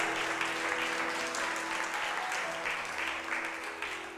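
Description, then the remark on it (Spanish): A crowd applauds the Lord during a Spanish-language sermon, clapping steadily and densely for several seconds, a continuous wash of many hands applauding together, with faint voices mixed in and a steady low hum beneath. “Alguien le puede dar un aplauso al Señor.”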